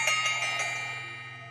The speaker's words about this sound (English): So before we get started, we are going to go ahead and we are going to open our space by ringing our bell